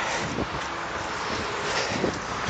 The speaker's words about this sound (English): excuse the noise. It's the road next to me now.